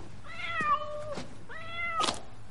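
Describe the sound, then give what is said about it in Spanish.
A cat being brought in meows twice in a row, two drawn-out, plaintive cries with a short pause between them, fairly clear with no one talking. “Sembene trae un gato.”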